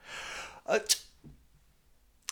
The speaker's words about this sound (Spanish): También soy alérgico al polvo, esas pequeñas partículas que están en las superficies. Por eso es importante que esté en lugares limpios. En caso contrario, empiezo a estornudar.